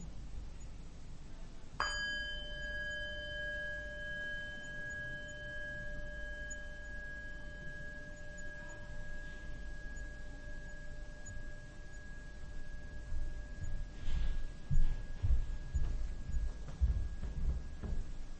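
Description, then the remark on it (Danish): A single meditation bell is struck once, ringing out clearly with a bright metallic onset and long, steady tones that slowly fade over many seconds against a quiet, faintly rumbling background. “Læg nu mærke til, hvordan din opmærksomhed og hvordan din sansebevidsthed bevæger sig fra et objekt til et andet, når du hører lyden fra klokken.”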